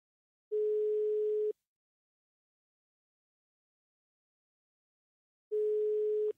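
A steady electronic telephone ringback tone sounds twice, each about one second long, separated by a long silent gap, clear with no voices, on a journalist's call to Rasmus Horn Langhoff on 13 February, during the winter holiday.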